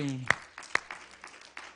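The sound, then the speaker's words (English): A handful of sharp hand claps ring out as people clap at the preacher's urging during a sermon, two louder ones followed by softer, scattered clapping, with a brief voice at the very start. “The Bible says in Psalms 47 1, Oh, clap your hands, all your people.”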